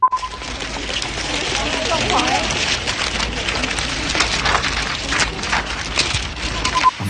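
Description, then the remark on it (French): Continuous crackling flutter of many white paper sheets waved by protesters in China, flapping and rustling in the wind, dense and steady throughout, with a faint murmur of crowd voices underneath. “On entend des manifestants brandir des feuilles blanches et les agiter dans le vent.”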